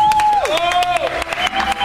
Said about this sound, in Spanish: Un aplauso para Charitín